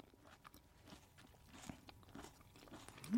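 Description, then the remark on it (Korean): Crunchy chewing of tomato-tasting food, ASMR style: a steady run of crisp, irregular bites and crackles, fairly quiet overall, with no talking. “그럼 한번 이거 ASMR 뭐 이런 건가요? 네, 한번 예 최적의 톤으로 드셔주시죠.”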